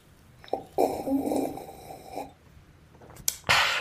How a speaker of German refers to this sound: schön schlürfen, damit man auch hört, man trinkt. Ja, unbedingt, das muss ja authentisch klingen.